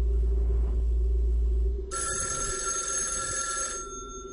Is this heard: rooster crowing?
no